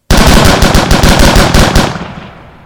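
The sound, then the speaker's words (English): A rapid, loud burst of gunfire as police open fire on a crowd of picketers in what came to be known as the Memorial Day Massacre, roughly a dozen sharp shots in quick succession over under two seconds, then a fading reverberant tail. No voices are heard. “Police opened fire on the crowd.”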